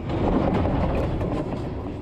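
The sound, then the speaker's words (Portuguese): A train rolls by, a loud, steady rumble of wheels on the rails with faint rhythmic clatter, filling the whole short stretch without any voices. “O maquinista disse à polícia que o indivíduo, de repente, se jogou na frente do trem.”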